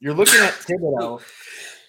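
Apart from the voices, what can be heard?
sneeze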